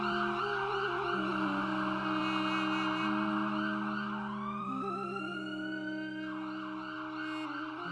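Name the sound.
ambulance siren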